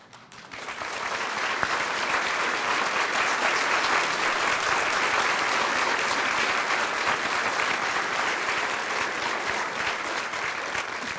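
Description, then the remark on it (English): Sustained applause from a large audience, a dense steady patter of many hands clapping that swells in quickly and holds at a fairly loud, even level throughout, with no talking over it. “Please, please remain standing and let's hold your applause till we finish all of India.”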